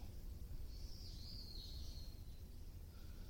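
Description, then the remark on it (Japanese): Faint bird chirping drifts over a steady low outdoor rumble on a chilly, sunny late-autumn morning around 10:30, a thin high call lasting about a second and a half before fading, with no one talking. “この鳥の声とかが聞こえてるといいんだけどなと思いながら。”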